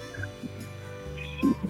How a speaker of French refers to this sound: Mais c'est une grosse grenouille qui fait un gros bruit comme un taureau un peu. Souvent, on les entend la nuit qui font pacon, Ils ont différents cris